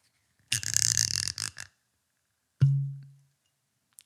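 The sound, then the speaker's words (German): A second of rummaging and scraping as a heavy whisky tumbler glass is taken out, then a pause and a single solid clunk with a short low ring as it is set down, followed by a faint tap. “also um das Ganze noch ein bisschen stabiler zu machen, kram ich nochmal meinen Tumblr raus.”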